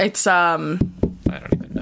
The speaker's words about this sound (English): Stop tapping the table. Sorry, I'm sorry. I'm sorry, listeners.